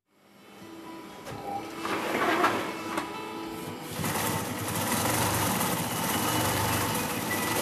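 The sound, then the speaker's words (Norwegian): An industrial sewing machine stitches heavy sailcloth at the Seil og Rigg sailmaker's workshop on the quay edge in Vågsbygd, outside Kristiansand, Norway. It whirs steadily, its motor hum building and turning harsher and louder about halfway through, with no talking. “Jeg har noen ordentlige maskiner her som eh, egentlig kan sy gjennom hånda di om du vil det.”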